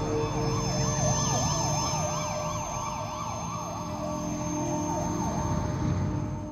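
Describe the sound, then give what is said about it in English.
An ambulance siren wails in a steady, rapid rise-and-fall pattern, fairly loud, over a low rumble of road traffic, with no one speaking. “They got an ambulance.”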